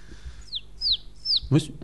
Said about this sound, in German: Was war das? Äh, es hat reingezogen. War das ein, ein, ein, äh, Spatz?